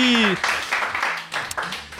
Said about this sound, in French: Faut l'applaudir quand même.